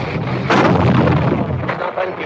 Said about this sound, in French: Quatrième char et ils tirent, en quelle direction ben, Pas sur nous alors. Ils viennent tourner ce tourelle, c'est vers nous Il vaut mieux se baisser, oui je crois. Vous entendez de temps en temps les huit balles qui tapent.